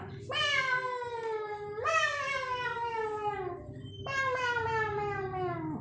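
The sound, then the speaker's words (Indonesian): A cat meows three times, each call long, loud and drawn out with a falling pitch, over a low steady background rumble. “Oh ini ya ini main sama kucing ya.”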